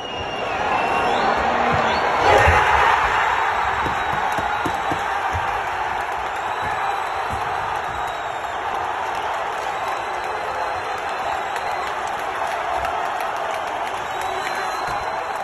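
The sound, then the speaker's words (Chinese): A stadium crowd at Ahmad bin Ali Stadium, with Wales fans, roars and cheers as Gareth Bale scores a penalty for Wales, surging to a peak in the first few seconds, then holding a loud, dense, steady wall of noise with scattered claps and shouts to the end. “咱们来听一下打进点球那段的音频，来一段现场的效果。”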